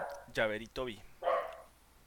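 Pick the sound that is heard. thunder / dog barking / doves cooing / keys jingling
dog barking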